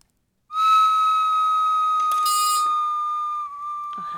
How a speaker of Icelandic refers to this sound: er blokkflöyta. Blokkflöyta, vel gert, akkurat.